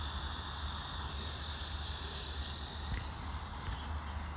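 Cicadas in trees drone in 34°C heat, a continuous, steady buzz with a high-pitched shimmer, holding an even loudness throughout with no voices and only a couple of faint, brief clicks.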